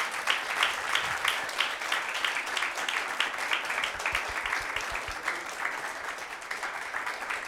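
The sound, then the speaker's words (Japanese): Sustained applause from an audience sending off the lecturer at the close of a Mirai Jugyō lecture, a dense, steady patter of many hands clapping at an even loudness throughout, with no voices standing out. “どうぞ大きな拍手でお送りください”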